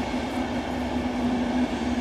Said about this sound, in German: wenn du dich mal umdrehen möchtest, da fährt gerade der Berlin-Warschauer-Express. Ah ja, der fährt äh, an meinem Büro lang, jeden ja. Morgen.